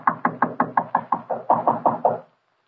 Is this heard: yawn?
no